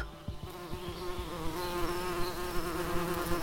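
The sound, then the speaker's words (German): A steady, dense buzzing of bees, many wings droning together in a continuous, slightly wavering tone with no voices present. “Hört ihr das Summen der Bienen?”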